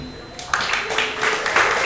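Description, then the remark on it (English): A short burst of applause from first-time visitors at Housing Works Bookstore Cafe, scattered hand claps swelling quickly into a steady patter at moderate loudness and continuing for under two seconds. “Can I get a round of applause from anyone who's here in the store for the very first time?”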